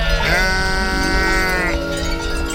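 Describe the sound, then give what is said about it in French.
A single sheep bleats loudly, one long wavering cry lasting well over a second, with faint farmyard ambience around it. “je rêve d'une société de moutons. Où, quand on a un super plan bouffe, on belle fort pour prévenir les copines.”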